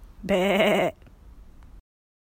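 A single loud, wavering sheep bleat rings out for about half a second, followed by a quiet low rumble before falling silent.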